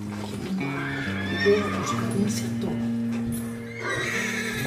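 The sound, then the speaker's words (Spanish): A horse neighs and whinnies loudly, its long wavering cry stretching across several seconds, with faint hoof clatter and some muffled voices underneath. “¿Qué pasó con ese caballo?”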